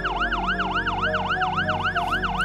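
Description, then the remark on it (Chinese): An ambulance siren wails in a fast yelp, its pitch sweeping up and down steadily about three times a second. It sounds loud and continuous, with a low rumble beneath and no voices. “救护车也来了”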